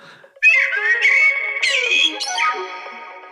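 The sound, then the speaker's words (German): A Eurasian blackbird sings a loud, flutey phrase of clear whistled notes that rise and fall in a few quick segments, with no voices or other sounds around it. “Weil wir spielen gerade mal die Amsel vor.”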